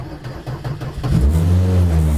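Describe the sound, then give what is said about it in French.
A rally car engine cranks with a quick series of starter pulses, then catches and roars into a loud, rising rev that holds steady, with no talking over it. “ça démarre bien en vrai”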